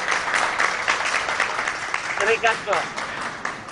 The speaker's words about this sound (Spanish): Así que un aplauso eh, de nuestro público a, a, la Casa de Papel y a sus actores.